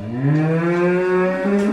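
A cow moos in one long, loud, sustained call lasting nearly two seconds, with a rich droning tone that shifts slightly in pitch toward the end.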